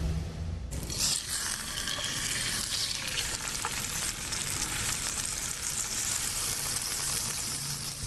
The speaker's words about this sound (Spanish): ahora estamos escuchando el inconfundible olor, perdón, sonido, casi olor, ¿no? A garnacha. A uy, qué rico. La quesadilla de, híjole, así de flor de calabaza